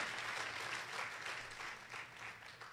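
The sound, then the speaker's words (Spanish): An audience applauds the Lord Jesus Christ, a dense wash of many hands clapping at a fairly even loudness throughout, with no voices standing out above it. “Aplauda al Señor Jesucristo.”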